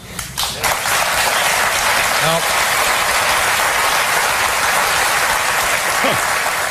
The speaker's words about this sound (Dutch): Hij krijgt gewoon applaus krijgt hij.